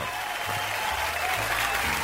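Steady clapping from a crowd on a radio show, applause for a man who has just returned; a dense, continuous patter of many hands at moderate loudness without pauses or distinct individual claps.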